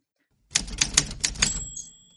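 A quick burst of about five crisp typewriter key strikes in a steady rhythm, followed by the bright ring of the carriage bell, heard up close with no talking.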